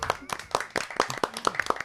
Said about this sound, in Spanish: Y queremos darle un pequeñísimo aplauso aquí a la oveja perdida.